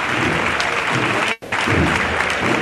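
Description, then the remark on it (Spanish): A street crowd in Triana, on calle Párroco Don Eugenio, applauds a saeta singer during the procession of the Cristo de las Tres Caídas, a dense, steady wash of clapping at full volume that drops out for a split second midway, then resumes just as strongly. “El aplauso, saetera.”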